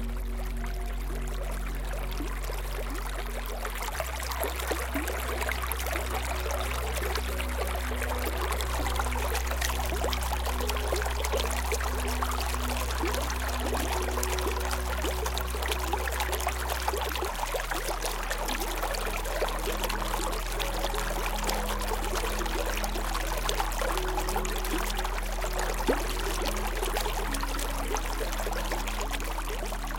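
Water flows and splashes steadily over rocks in a mountain stream in the Mourne Mountains south of Belfast, a continuous babbling rush with no voices, holding the same even level throughout.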